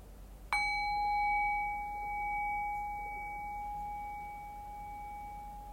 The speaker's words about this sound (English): so I'll ring the sound of the bell again. The invitation here is again to rest awareness on the decay of the bell and allow the fade of the bell to bring our awareness into silence.